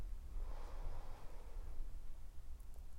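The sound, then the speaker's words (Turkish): A slow, airy breath drawn in through the nose during a guided breathing exercise, soft, with a steady low rumble underneath and no talking. “Burnundan bir nefes al.”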